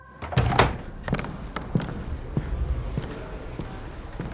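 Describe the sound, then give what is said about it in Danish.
The doors of a courtroom in the United States burst open with a loud bang, followed by a run of lighter knocks and thuds that fade into a low background hum. “Men lad os da slå dørene op og høre, hvad det så er, der sker derinde.”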